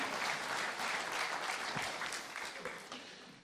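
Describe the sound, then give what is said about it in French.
An audience applauds Jesus steadily, a dense wash of many hands clapping at an even level that thins slightly toward the end, with no voices over it. “Ah oui, bah, si vous voulez applaudir Jésus, allez-y.”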